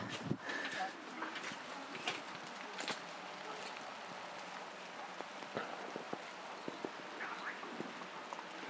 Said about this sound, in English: raining more heavily now.